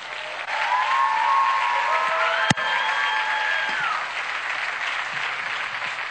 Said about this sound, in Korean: 우리 두 분 나오셔서 리플렉트라고 하는 제목으로 말씀 전하실 텐데 우리 두 분 나오실 때 큰 박수 부탁드립니다.